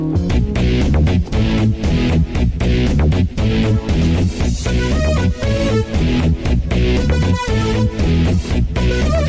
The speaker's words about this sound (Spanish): Una vez que tenemos con qué grabarlo, necesitamos los instrumentos y se usa principalmente uno, el sintetizador que suena así.